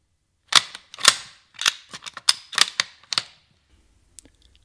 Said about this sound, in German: So klingt es, wenn man ein altes Gewehr aus dem Zweiten Weltkrieg durchlädt. Und es ist das letzte Geräusch, das drei Menschen hören, bevor ihre Körper von Sprenggeschossen zerfetzt werden.